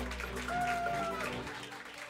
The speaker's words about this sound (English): Um, we're back live from the Blue Cross Blue Shield Performance Stage with more of the QB1 Town Hall broadcast with the Parkinson Spiegel Show on 670 The Score in Audacy Station. Give yourself a round of applause.